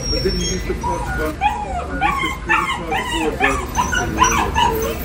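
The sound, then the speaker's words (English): A small dog yips and whimpers repeatedly in line at a CVS store, a rapid run of high-pitched, rising-and-falling cries over a steady background hum. “The Annoying Dog at CVS”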